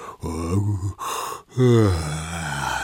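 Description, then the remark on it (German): A voice acts out an exaggerated, extra-loud yawn before settling down to sleep: a couple of breathy, groaning bursts followed by one long, drawn-out yawn that slides downward in pitch, clear with no talking. “Es gähnte extra laut”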